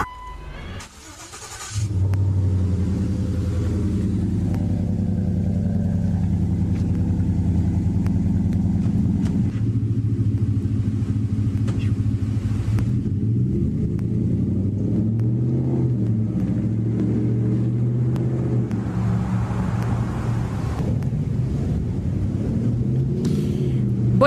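A pickup truck's engine turns over after a brief clatter, then settles into a loud, steady low rumble whose pitch rises and falls with occasional revving. No one speaks.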